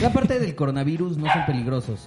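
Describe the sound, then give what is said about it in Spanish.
A dog barks a few times, partly buried under a person talking steadily in Spanish. “Y allá hay otro perro.”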